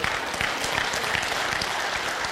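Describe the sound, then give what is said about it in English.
An audience bursts into steady, dense applause, many hands clapping together in a fast, continuous patter that stays loud and even for a couple of seconds. “My question to you is this listen, let's cl- clap if you're going to clap if you're awake.”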